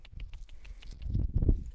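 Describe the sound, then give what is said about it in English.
A horse walks, its hooves clip-clopping in a steady, uneven rhythm, followed by a louder low rumble of movement toward the end. “So we're going to let him walk for just a minute, see if he can figure this out.”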